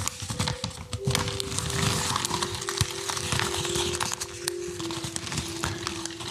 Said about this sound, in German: Es kann aber auch beispielsweise die Speisekarte sein zu eurem Lieblingsrestaurant. Ich selbst war gestern beim Inder meiner Wahl und habe die ganze Karte rauf und runter bestellt. Knüllt es ein bisschen, hört doch, wie es knüllt.